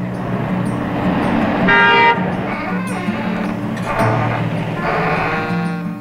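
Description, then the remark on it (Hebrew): Car horns honk repeatedly over a steady hum of street traffic on a Tel Aviv street, one long loud blast standing out, with shorter toots following, heard from a third-floor apartment window above the road. “הוא בוחר לצלם מחלון הדירה בתל אביב, מכוון את המצלמה החוצה, אל המרפסות בבניין שממול, ואל הרחוב שלמטה. אני מוסיף צליל.”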